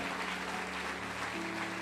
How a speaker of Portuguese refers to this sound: Aplaude a Deus por isso.